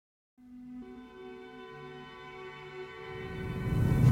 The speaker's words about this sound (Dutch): Ik hoor nou trouwens ook sirenes.